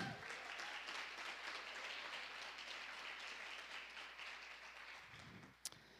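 Sustained applause from a church audience clapping to Jesus for the life of their pastor, a dense, steady crackle of many hands clapping for about six seconds, with a faint voice near the end and a brief sharp click just before it fades.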